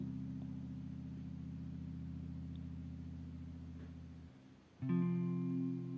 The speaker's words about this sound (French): Être sensible au bruit d'une moto.